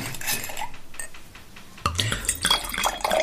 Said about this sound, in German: Ich würde euch gern was einschenken.